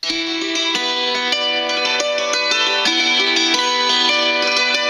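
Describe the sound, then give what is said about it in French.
A hammered dulcimer, also called a medieval dulcimer, plays alone, its strings struck with small sticks and ringing out in a brisk run of bright, shimmering notes that overlap and sustain at a steady, fairly loud level. “Et sur ce modèle-là, appelé dulcimer du Moyen-Âge ou hammered dulcimer, on frappe les cordes avec des bâtonnets.”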